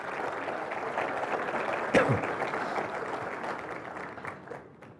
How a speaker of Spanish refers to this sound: Con ustedes, el padre Alfredo Sáenz, para quien pido un aplauso fuerte.